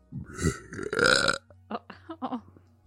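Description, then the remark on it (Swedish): A weak, breathy burp that comes out mostly as air, a rough guttural push lasting about a second, followed by a few short voiced bursts like chuckles or breaths. “Och … kommer avsluta med en rap.”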